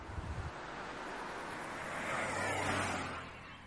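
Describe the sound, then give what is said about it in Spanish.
A car drives among eucalyptus trees with a steady low engine drone under a broad rushing road and wind noise that swells a little toward the end, with no voices. “Circulan en coche entre eucaliptos.”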